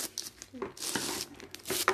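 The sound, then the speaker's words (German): Crinkly plastic wrapper rustling and tearing as the packet of a long cola-snake sweet is opened, a run of irregular crackles and rips over two seconds, with brief murmuring speech in between. “Ich tue es gerade aufmachen, die Verpackung.”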